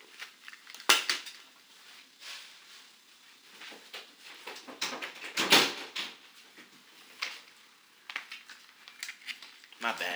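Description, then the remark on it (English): A door thuds shut with a sharp clack, amid scattered clattering and rattling handling noises, with a second loud knock partway through and muffled voices in the background. “I left the door open.”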